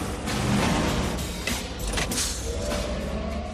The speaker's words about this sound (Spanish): Y me encantan esos soniditos que hacen los coches voladores en las películas. Empiezan son muy chulos. Y de hecho, los coches eléctricos actuales están intentando imitar estos sonidos tan bonitos para sonar.